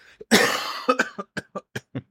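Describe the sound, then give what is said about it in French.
A harsh, loud cough bursts out, followed by a quick run of smaller, evenly spaced coughs trailing off over about two seconds, with no talking. “Il tousse, petit”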